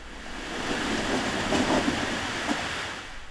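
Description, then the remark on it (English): Blocks of glacier ice drop from above and tumble into the ocean surface with a steady, roaring splash and rumble, swelling in the middle with a few sharp cracks before easing off. No voices. “Here's what it sounds like when the ice is dropping from above.”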